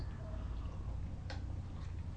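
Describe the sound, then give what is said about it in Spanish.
A small spoon stirring a cup of still-hot, bitter, unsweetened coffee, heard as one sharp clink of metal on ceramic followed by a fainter tap, over a steady low rumble with no talking. “ahora sí voy a tomar la cucharita y voy a revolver este café que se ha refrescado un poco pero sigue caliente, amargo, sin una gota de azúcar y siempre, siempre necesario.”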